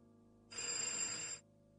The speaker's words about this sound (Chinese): 铃铃铃，一阵电话铃声，是杨小荣办公桌上的电话响了。